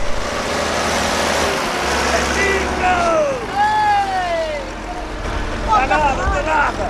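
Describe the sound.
A tractor engine drones with a steady low rumble as it arrives hours after a fishing net was set in the sea, under the murmur of voices and a few high, squealing cries that rise and fall.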